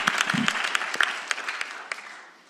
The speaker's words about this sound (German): Hier gebt ihr noch mal einen Applaus.